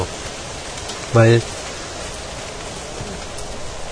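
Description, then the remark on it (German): Steady, dense hiss of rain falling throughout, even and continuous like a downpour, with one brief spoken word cutting through about a second in. “Jetzt regnet wieder.”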